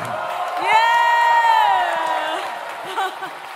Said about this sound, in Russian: Дайте еще огромные аплодисменты.